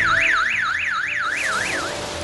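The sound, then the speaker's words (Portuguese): An anti-theft alarm on meat, chocolate or milk packaging in a Recife supermarket, set off when the item is picked up, wails loudly, its electronic tone sweeping rapidly up and down in a steady repeating warble, with no voices, before the tone breaks off near the end. “Um supermercado Recife decidiu colocar alarme nas embalagens de carne, chocolate e leite. É só pegar e o alarme dispara.”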